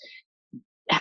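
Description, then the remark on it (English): A short, breathy hiss and a soft low grunt lead into a loud, sharp explosive vocal burst at the end, forceful, like a sneeze-like shout, made as an explosive sound in a class. “So, what we do in the class is we use sound and we use explosive sound.”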